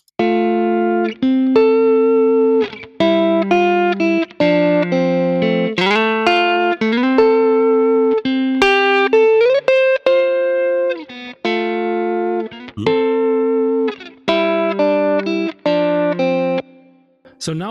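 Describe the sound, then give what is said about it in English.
Electric guitar through a compressor on a hard setting, with some treble and bass taken out, plays a run of chords and short melodic phrases, each strum held at a flat, even loudness with brief gaps between. No one talks over it. “So just, this is really a hard setting here for the compressor.”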